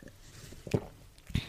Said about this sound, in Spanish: Y voy a tomar un traguito de té que hace un frío.